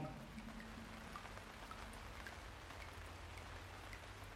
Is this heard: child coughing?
no